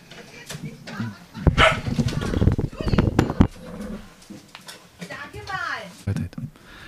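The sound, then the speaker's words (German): A dog barks several times in quick, uneven bursts, fairly loud, with some higher yelping notes mixed in while people talk over it. “Wir hatten ja Kampfhundeinsätze.”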